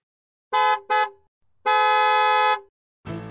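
A loud truck horn honks twice in quick short blasts, then gives one long sustained blare with a bright, brassy tone, before a different, rougher sound begins at the end.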